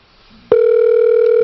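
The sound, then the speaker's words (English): An outgoing phone call to John Truman Wolf: the ringing tone switches on abruptly after a brief low hum, then holds as a loud, steady electronic tone with no talking. “We're going to see if John Truman Wolf will pick up the phone.”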